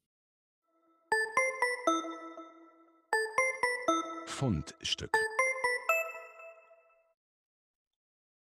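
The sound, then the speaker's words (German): A short segment separator jingle of bright, bell-like chimes struck in quick rhythmic runs, clear, with a voice briefly speaking a single word partway through before the chimes ring out and fade. “Dann versuche ich mal unseren Trenner reinzuspielen.”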